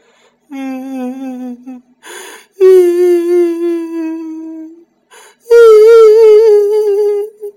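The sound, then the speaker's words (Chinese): An old woman's mournful crying at one o'clock past midnight: three drawn-out, wavering wails, each sliding slightly in pitch, broken by short gasping breaths. The sobs are loud and stand alone with no talking. “到了午夜一点钟的时候，他刚刚有一点睡意，凄凉的哭泣声就响起。”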